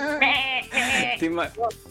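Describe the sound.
A person imitates a goat, letting out a few loud, wavering bleats in quick succession, each one quivering and nasal before breaking off.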